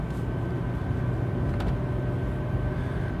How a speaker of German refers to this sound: Naja, und wie ihr hört, weil ich fahre schon 30 und wenn ich jetzt gleich hier auf die Straße eingebogen bin, dann fahre ich gleich 50. Hört sich mein Auto jetzt endlich erstmal wieder an wie ein Auto. Und ich hoffe, das bleibt jetzt auch so.